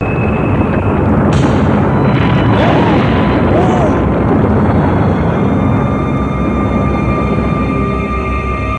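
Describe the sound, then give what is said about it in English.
A building implodes and collapses in front of a crowd after earthquake-like tremors, with a loud, sustained rumbling boom, a dense roar of crashing debris that fills the scene for several seconds without letting up. “and then they start having these earthquake-like tremors uh, around the building, and then everybody kind of moves away from the front steps there, and the whole building just implodes. It collapses right in front of the crowd.”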